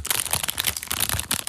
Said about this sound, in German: Pass auf. Das ist die Verpackung. Die hört sich so an.